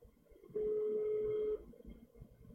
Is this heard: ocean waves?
no